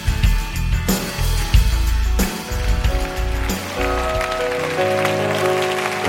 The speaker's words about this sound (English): Give that to the Lord. Come on. It's Him. It ain't about me, it's Him. Come on, clap for the Lord here tonight.